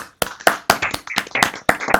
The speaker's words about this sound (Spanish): Quiero proponer un aplauso a la, propuesta de rol. A la propuesta de rol que eh, me parece la polla.